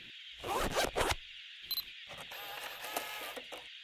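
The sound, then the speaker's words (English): A zipper is pulled open in a few quick, scratchy bursts, followed by a longer, steadier zipping rasp, fairly loud with no talking, as someone gets out a camcorder. “Let me get my camcorder just in case.”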